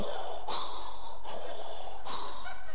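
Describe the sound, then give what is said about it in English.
A person wearing a face mask imitates heavy mechanical respirator breathing: loud, hissing breaths in a steady rhythm, about three long rasping pulls and pushes of air with no talking. “I look like Darth Vader. And I kind of add a little sound effect to it when I put it on”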